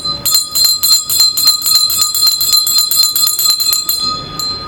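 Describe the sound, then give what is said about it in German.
A bright metallic clock bell rings loudly in rapid, steady strokes, striking twelve o'clock, each ringing tone overlapping the next, with no voices, then fades as the strokes stop near the end. “Hört hier Leute und lasst euch sagen, es hat nun zwölf Uhr geschlagen.”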